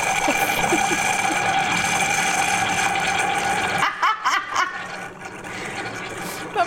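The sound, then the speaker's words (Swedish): A coffee maker gurgles and hisses steadily, then breaks into a few loud spluttering bursts as the last water bubbles through at the end of brewing. “Och du älskar maskiner som kämpar Ja, framförallt maskiner.”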